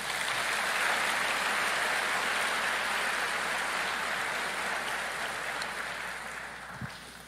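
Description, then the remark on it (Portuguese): A church audience applauds Jesus steadily, a dense wash of many hands clapping at an even, sustained loudness that slowly tapers off toward the end, with no speech over it. “Se você está comigo até aqui, aplauda Jesus, por favor.”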